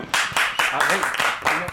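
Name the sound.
applause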